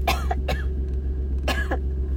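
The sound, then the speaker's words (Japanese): A sudden burst of coughing, two short clusters of sharp coughs with a brief pause between them, over a steady low background hum. “突然の咳。”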